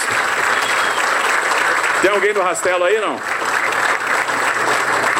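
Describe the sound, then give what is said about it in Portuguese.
A crowd applauds steadily for the road-paving rake workers, a dense, even wash of clapping that fills the whole stretch, while a man briefly speaks over it midway. “Uma passada de palmas para os rasteleiros.”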